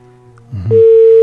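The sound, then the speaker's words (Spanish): A steady, loud telephone line tone on a phone call cuts in after a brief low rumble and holds unbroken to the end, a single pure electronic hum with no voices over it. “Ahí quiero que alguien se quedó en la línea.”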